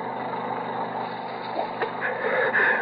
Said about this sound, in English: The sound of a two-cycle engine was coming from below. Probably a generator. Doc, Dr. Hall wouldn't have heard the shot above the noise.